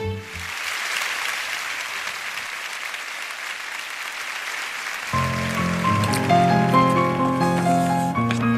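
On a Galei Tzahal radio broadcast, a crowd applauds a singer on stage in a steady, dense crackle of clapping. Partway through, a band starts playing a melodic tune, a song about lost love, and the applause carries on beneath the music.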